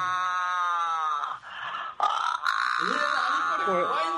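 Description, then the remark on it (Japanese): A cat yowls in long, drawn-out cries with a wavering pitch, briefly breaking off twice before continuing in a lower, warbling moan. The cries are fairly loud throughout, and no one speaks. “絶対猫ちゃんだ”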